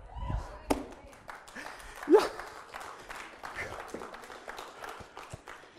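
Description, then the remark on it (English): An audience claps in scattered, irregular bursts, many sharp overlapping hand claps at moderate volume, with murmuring voices underneath and a brief louder vocal exclamation partway through. “Let me tell you, some of y'all are clapping.”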